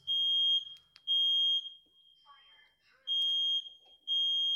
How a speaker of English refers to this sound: Sorry, the fire alarm has just gone off in my house.